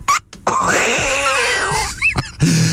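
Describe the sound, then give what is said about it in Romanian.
A cat lets out one long, drawn-out yowl that rises and falls in pitch, loud, then a short chirping call and a few brief noises follow. “Și totuși să mai ascultăm uh, pisica.”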